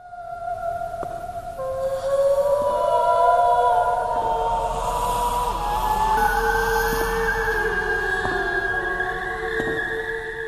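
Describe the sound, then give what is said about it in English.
An eerie, hypnotic whale-like mermaid song: several long, wavering tones slowly slide and overlap in a steady, fairly loud drone, with faint ticking accents scattered throughout and no talking. “I think the the the song they did a tremendous job with this song because it's like, well, how would you depict a mermaid song, you know, that's like hypnotic and all that stuff.”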